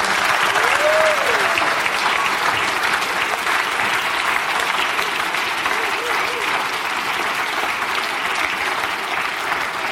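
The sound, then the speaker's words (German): Loud, sustained applause from an audience for the whole group fills the whole stretch, a dense steady clatter of many hands clapping with a brief cheer or whistle rising early on. “Und ich würde sagen, nochmal ein fetter Applaus für die ganze Runde.”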